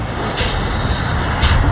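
A bus's air brakes hiss in two sharp bursts over a steady low engine rumble, with faint high whistling tones lingering between them. No one speaks.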